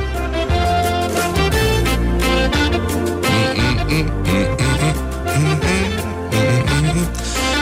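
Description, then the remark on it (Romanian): A cheerful duet song from a cartoon video plays continuously and loudly, with two singers' vocals over steady instrumental accompaniment and a bouncy rhythm throughout. “Uh, nu, el poate fi interpretat, dar uh, ei doi fac un, uh, un cântecel foarte frumos, altfel el sună cam așa.”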